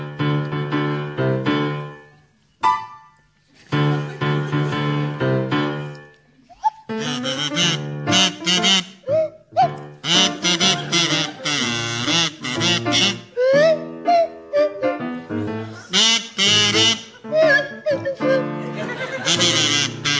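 Tim Brooke-Taylor on a swanee whistle and Jeremy Hardy on a kazoo play a tune together, the whistle sliding up and down in pitch while the buzzy kazoo follows, loud and wobbly, with short pauses between phrases.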